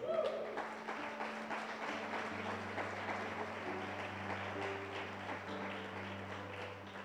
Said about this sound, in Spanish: dele un aplauso al Señor.